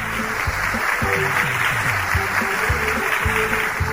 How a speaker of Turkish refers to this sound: Doğru cevap mı sevgili çocuklar? Evet. O zaman alkış hak ediyor.